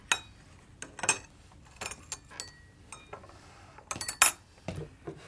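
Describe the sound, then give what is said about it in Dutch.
Teacups and spoons clink irregularly as tea is poured in a servants' room, a series of bright, ringing china-and-metal taps with short pauses between, some louder clusters near the end, and no voices. “Daar een druppel thee voor een vrouwentong hetzelfde is als een druppel olie voor een piepende deur, wandelde ik zo terloops de bediendenkamer binnen, op het ogenblik dat de thee juist ingeschonken werd.”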